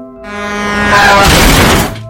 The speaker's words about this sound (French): Alors, accident de voiture qui prive le duo de ses parents.